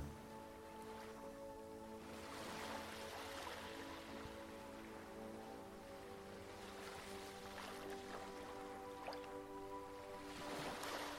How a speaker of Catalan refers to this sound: les onades arriben aportant la seva frescor i humitat al teu cos, rítmicament. Et fixes ara en l'arribada de les onades fins al lloc on seus.